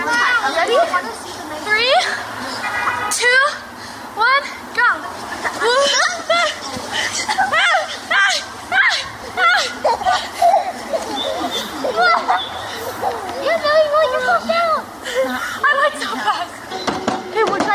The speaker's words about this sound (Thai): นอกจากนั้นเด็กนั้นชอบเล่นสนุกและมีอารมณ์ขันหัวเราะกันเล่นสนุกกัน ผมมีวิดีโอของเด็กนะครับที่ผมไม่ถ่ายไว้ว่าเด็กๆเนี่ยชอบเล่นและสนุกอยากจะฉายวิดีโอให้ดูนะครับ